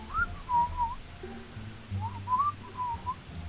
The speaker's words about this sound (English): I'm just kind of whistling.